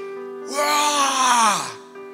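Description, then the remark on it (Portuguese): A single voiced shout imitating the teruah, the ancient Israelite shout of joy like a war cry raised when celebrating the Lord, rising and held for about a second before sliding down in pitch, loud and rich with harmonics, over a steady low hum. “O comentarista Champlin diz assim que teruá era o barulho, os gritos de alegria parecidos com gritos de guerra que eram dados quando se celebravam ao Senhor.”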